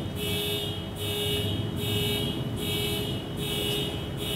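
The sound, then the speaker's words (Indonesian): A car alarm blares outside in steady repeating pulses, roughly five cycles of a high electronic tone over a constant low rumble, with no talking. “Bukan mobil saya itu ya.”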